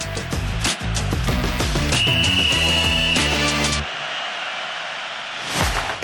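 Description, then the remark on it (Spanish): A single long, shrill starting whistle blast rings out for about a second over loud, punchy music, which then drops away to a quieter fading tail. “Que suene el silbatazo inicial.”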